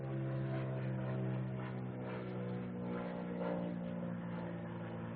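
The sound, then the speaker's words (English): An airplane drones overhead during a church sermon, a steady low engine rumble with layered humming tones that swells slightly and holds for several seconds, with no voices. “Wait a second for the plane.”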